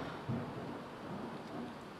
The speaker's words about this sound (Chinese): 打雷了，是不是啊？